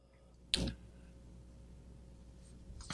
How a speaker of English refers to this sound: Excuse me, turning the page.